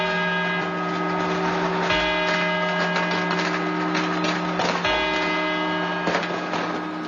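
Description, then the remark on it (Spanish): A clock tower bell strikes midnight in slow, evenly spaced tolls, each ringing out and lingering over a steady droning hum, with no voices present. “allí están sonando campanadas y ella sigue diciendo que son los cuartos”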